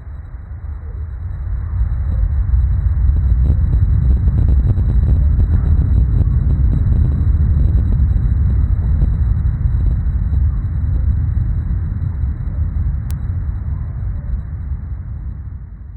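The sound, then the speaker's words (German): A recording of an earthquake's ground vibrations: a deep, continuous rumble swells over the first two seconds, holds steady with rattling crackles layered on top, then slowly eases off. “Das war gerade die Aufzeichnung eines Erdbebens.”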